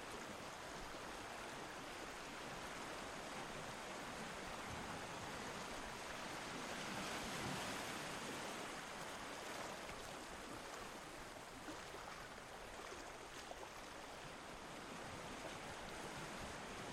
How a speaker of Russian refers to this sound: Вы видите синий океан, спокойный, под летним небом. Он расстилается далеко за горизонтом. Пена на влажном песке мягко ласкает ваши стопы и медленно уползает в океан.